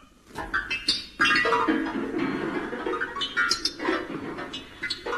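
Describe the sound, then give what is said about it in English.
A comic sound effect of a piano being shoved along to the docks, with jangling, discordant notes and clattering thumps in a busy, loud, continuous jumble for about five seconds, with no talking. “that was the sound of Seagoon piano dancing a piano to the docks”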